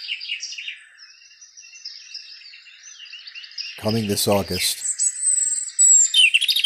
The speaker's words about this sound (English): Listen. Listen to the high frequency of birds